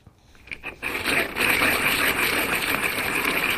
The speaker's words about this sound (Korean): 아, 이거 연필 깎기 기계에 돌리는 소리입니다. 연필 기계에 깎는 소리입니다.